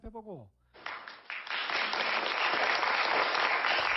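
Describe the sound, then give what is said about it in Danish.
A short spoken phrase gives way to a burst of studio audience applause on a South Korean morning TV show, swelling quickly and holding steady, a dense, loud wash of many hands clapping together. “Som publikum er glad for.”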